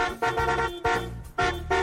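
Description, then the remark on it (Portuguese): A car horn honks three times in quick succession, each blast about half a second long, loud and brassy with a rich buzzing tone. No voices are heard. “Quem gostou da novidade, buzina aí!”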